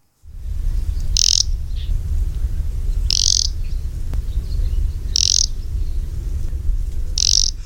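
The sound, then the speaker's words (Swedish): An Arctic warbler gives four short, hissing, buzzy calls, spaced about two seconds apart, clear above a steady low rumble of background noise. “Det är, liksom- det, det är verkligen ett fräsande ljud tycker jag när man hör alltså de här taigasångarlocken.”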